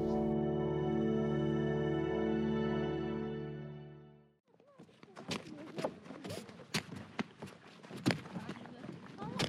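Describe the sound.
A sustained musical drone fades out, giving way to irregular hollow thuds and knocks of water barrels kicked along by a 12-year-old girl and her friends, aged 12 and 13, walking back home at midday under a hot sun and clear blue sky in River County, Kenya's coastal region, with faint children's voices in the background.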